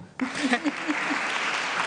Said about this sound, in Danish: I må gerne klappe.